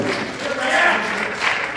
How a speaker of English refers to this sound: Yo, give yourself some freaking big old round of applause. You guys are yeah. badass. Love you.